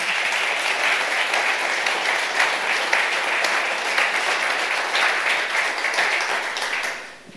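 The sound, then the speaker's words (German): An audience applauds steadily, many hands clapping in a dense, even wash of sound that holds for several seconds before tapering off at the end. No one speaks. “Wir freuen uns, dass ihr hier seid.”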